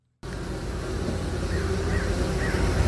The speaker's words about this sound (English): This is the sound of hundreds of little honeybees buzzing inside of a beehive, working away to make their precious honey.